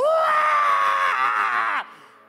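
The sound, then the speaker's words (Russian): A single voice imitates a scream heard during a church prayer against tumours: one loud, sustained, high-pitched cry that rises slightly in pitch, holds for nearly two seconds, then breaks off abruptly. “И я слышу такой крик.”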